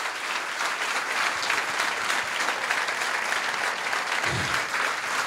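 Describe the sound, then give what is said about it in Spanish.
Sustained applause from a large audience, a dense steady wash of clapping hands that keeps an even, loud level throughout with no voices standing out. The applause is given to God. “Si le vas a dar un aplauso a Dios, dáselo bien.”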